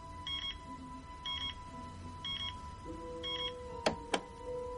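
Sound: alarm clock ringing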